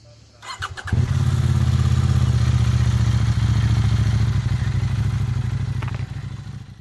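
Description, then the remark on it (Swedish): A CF Moto motorcycle in France, with a 799 cc parallel-twin engine (the same engine as the KTM 790 Duke) making just under 100 horsepower, catches after a few clattering starter turns, then settles into a loud, steady, throbbing idle, with no one speaking. “Det är första gången jag kör en motorcykel från CF Moto och jag eh, måste säga att den levererar.”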